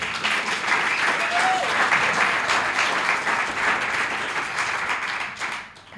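Loud, sustained applause from a large audience, a dense wash of many hands clapping at once that holds steady for several seconds before tapering off at the end.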